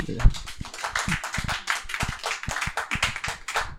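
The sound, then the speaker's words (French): A small audience in a bar applauds, a dense patter of many hands clapping steadily for a few seconds, fairly loud and without any talking over it. “petit applaudissement.”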